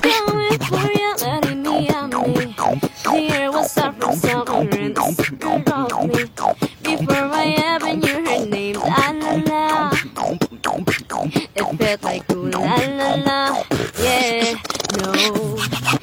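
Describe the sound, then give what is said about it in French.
Two kids perform in the street near Pompidou: a girl sings a steady melody while reading the lyrics on her phone over a guy's beatboxed rhythm, sharp percussive mouth beats pulsing continuously beneath her voice, loud for the whole stretch. “Ah oui, Pompidou, au début, on se dit que c'est un peu cheap, mais attends, deux gamins sont comme ça, dans la rue, au calme, le gars fait le beatbox, et la fille chante en regardant les paroles sur son téléphone, et c'est une tuerie.”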